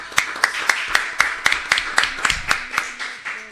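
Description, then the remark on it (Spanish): Applause for Agustín "Chivo" Rossi, a pre-candidate for national vice president, visiting a morning program at 11:07: a steady, even rhythm of sharp claps, roughly four per second, moderately loud and continuing for several seconds with no voices. “Bien, continuamos en el mañana siendo las 11.07 minutos y un aplauso muy grande para el señor Agustín Chivo Rossi que vino a visitarnos.”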